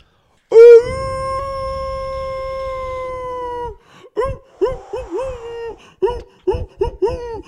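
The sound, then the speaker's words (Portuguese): A person imitates a wolf with one long, loud, sustained howl that slowly drops in pitch, then breaks into a series of short, choppy yips and whoops before trailing off. “Manda aquele do lobo que eu vou mandar um pra você.”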